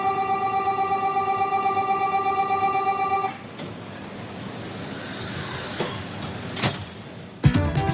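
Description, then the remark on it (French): A steady, piercing automatic door-closing warning tone sounds for about three seconds, then gives way to a broad rushing rumble with scattered clunks as TGV high-speed train number 3635 pulls away. “le TGV numéro 3635 à destination de Funky Pearl va partir. Prenez garde à la fermeture automatique des portes.”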